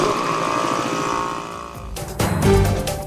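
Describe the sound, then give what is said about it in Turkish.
A helicopter flying reconnaissance during President Gül's visit after the Reyhanlı attack: its steady engine drone holds for a couple of seconds before the sound cuts abruptly to louder, rougher rushing and thudding noise, with no voices. “Ziyaret boyunca köpekler bomba araması, helikopterler keşif yaptı.”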